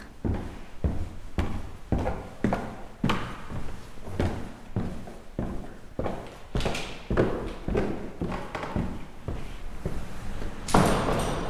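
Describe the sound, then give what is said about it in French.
Knocking on the caretakers' door of a venue of thousands of square metres, a long series of solid raps repeating at a fairly steady pace, ending with a brighter, noisier sound. No one speaks. “Bon, eh bien, allons toquer à la porte des concierges du lieu.”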